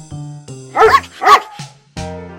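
A dog barks twice in quick succession, two loud, sharp woofs standing out over soft, steady background music that carries on before and after.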